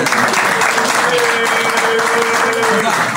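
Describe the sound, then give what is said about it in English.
A loud, dense wash of clapping from a crowd, steady for a few seconds, with cheering mixed in and a sustained high whistle riding above the applause. “Let's make, let's make some noise.”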